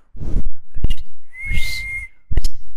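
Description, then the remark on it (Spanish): Someone tries to whistle, producing breathy puffs of air and a short, thin, wavering tone in the middle before it fades back into blowing. Fairly loud, with no talking. “Pero sabes silbar, yo no, mira.”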